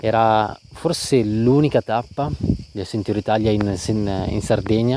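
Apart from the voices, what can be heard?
cicadas chirping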